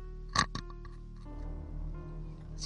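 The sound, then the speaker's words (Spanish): Someone vocally mimics a dog knocking on a window: two quick, sharp percussive sounds made with the mouth, a pause with faint background noise, then another short burst at the end, fairly loud. “Y yo cacho al tiro porque mi perra, cuando tiene un fuego artificial y esas cosas, le da miedo y empieza a golpear.”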